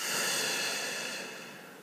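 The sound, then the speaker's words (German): A long, steady exhale through the mouth during a guided breathing exercise, a soft airy breath lasting nearly two seconds and slowly fading, with no talking. “Atmen durch den Mund ein und durch den Mund aus.”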